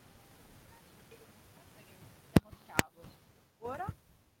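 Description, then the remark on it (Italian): A steady, low microphone hiss runs throughout, broken by two sharp crackling pops and a brief burst of rustling handling noise near the end, fairly quiet. “io ti sento tro- tro- troppo, troppo col fruscio il microfono, non so se...”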